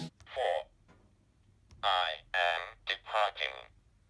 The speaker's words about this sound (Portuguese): que se chama Texas Instruments Language Translator que era uma meio que uma calculadora mesmo que tinha números e letras e ele emitia realmente uh, sons assim uns bips e se você fizesse algumas combinações ele saiu algumas meio que frases